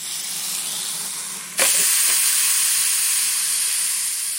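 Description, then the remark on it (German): A sausage sizzles on a grill, a steady hissing crackle that abruptly gets louder partway through and keeps spitting on its own with no voices. “Sich an Sonne brutzeln wie ein Würstchen auf dem Grill ist nicht gesund.”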